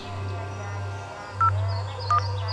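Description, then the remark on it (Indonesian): Two short electronic beeps from a mobile phone keypad, spaced less than a second apart, as buttons are pressed over a steady low hum; the phone's lights are on and its keys can be pressed, but it does not work or open anything. “Padahal lampunya nyala. Keyboardnya juga bisa dipencet. Tapi nggak berfungsi.”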